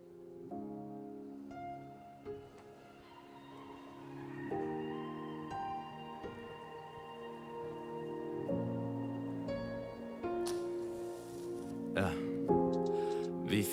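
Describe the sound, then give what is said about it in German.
A song's instrumental intro with sustained, melodic tones that shift chords every few seconds, building slightly in loudness, with bright crashing hits joining near the end. No one talks over it. “Und jetzt habe ich ein Lied rausgesucht, das so ein bisschen das widerspiegelt, was ich damals immer gedacht habe oder wie ich mich gefühlt habe.”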